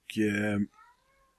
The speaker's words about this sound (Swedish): Sen så, hör ni min katt? Ja. Lite ja. ja. Den håller säkert tyst snart. Bara, bara så ni som lyssnar vet vad det är som låter.